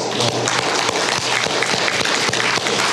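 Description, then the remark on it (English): A crowd applauds steadily, many hands clapping in a dense, loud wash of overlapping claps that holds constant for the whole stretch without pausing. “whoever wrote that, give them a round of applause.”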